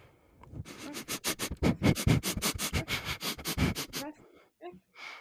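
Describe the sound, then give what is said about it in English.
A person imitates a dog with a rapid, steady run of about twenty sharp, breathy sniffs, then a few softer, scattered sniffs trail off at the end. “A dog.”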